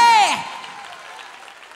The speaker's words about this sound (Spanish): Y si tú lo crees, dale un aplauso fuerte